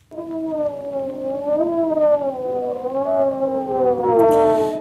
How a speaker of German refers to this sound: Aber zumindest in seiner ersten Meldung aus der Wissenschaft geht es um dieses Geräusch, nämlich um das Heulen von Wölfen.